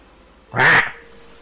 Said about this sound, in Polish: Zaraz przy twoim uchu. Na gałęzi przysiadł kruk. Ogromny ptaszysko. Wpatruje się. Mnie, na mnie kraczesz? Wpatruje się w ciebie tak jakby dużo rozumiał.